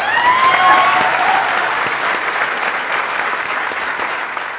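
A crowd claps steadily for several seconds for a participant called up to the stage, a dense wash of many hands with a few cheers and whistles near the start, staying fairly loud before easing slightly toward the end.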